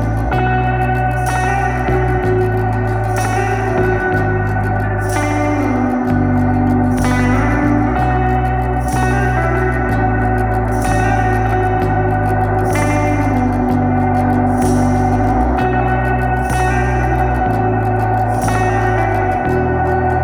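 A song plays loud and steady, with a deep bass line, regular drum hits and echoing, effect-laden guitar tones; no voice sings in this instrumental stretch.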